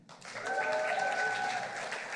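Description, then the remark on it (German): An audience breaks into steady applause for the speaker's children and wife, who made a dartboard that morning. It is a dense wash of many hands clapping at an even level for a couple of seconds, with a few faint voices or cheers blended in. “Da dürft ihr auch mal klatschen.”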